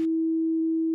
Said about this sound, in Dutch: Iets wat gradueel toeneemt en afneemt, levert een sinusoïdaal patroon op. Dat klinkt zo. Heel zuiver. Een sinus heeft geen overtonen.